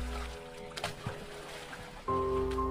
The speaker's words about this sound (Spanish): Debido a que queríamos ir rápido, remábamos muy fuerte, pero al romper la tensión del agua con nuestras manos, provocábamos mucho ruido.